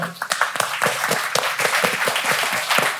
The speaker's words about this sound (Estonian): ja kõik need, ma usun, kolmkümmend, nelikümmend inimest, kes siin äh, Paides istuvad, äh, on samuti turvaliselt katusega kaitstud, aga väärivad äh, oma vastupidavuse äh, eest siiski iseendale väikest aplausi, nii et aitäh, et te tulite